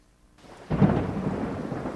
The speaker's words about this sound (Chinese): 打雷了，我不怕